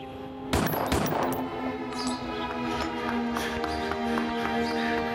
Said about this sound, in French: C'est Frankie, le frère et voisin de Marvin, qui a entendu les coups de feu.